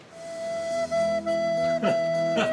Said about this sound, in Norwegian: Utrolig vakkert fløytespill. Ja. Blokkfløyte. Litt sånn som mitt nivå på blokkfløyte.